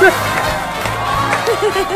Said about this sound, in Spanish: Mi querido amigo, estos aplausos son para ti.